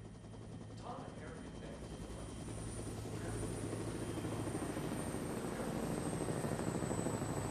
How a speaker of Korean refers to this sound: 멀리서 헬리콥터가 지붕 사이를 스치듯이 날아다니며 휘파리처럼 잠시 맴돌다가 방향을 바꿔 날아가 버렸다. 창문을 통해 사람들을 엿보는 순찰기였다.